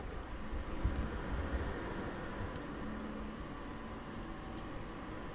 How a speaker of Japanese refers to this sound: どうですかね PC のファンの音はどのぐらい入ってますかね普段はね ASMR 撮るときは PC はオフにしてるので、えー、このノイズはない状態にはなりますけど